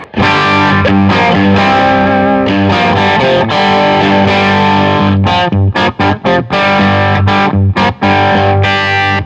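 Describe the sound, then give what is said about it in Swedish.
A heavily overdriven electric guitar played through an overdrive pedal plays loud, saturated chords with no one talking, ringing out steadily before breaking into short, choppy stabs with brief gaps near the end. “Jag tror att den märks mer också ju mer distat du har, så vi drar tillbaka gainen på max.”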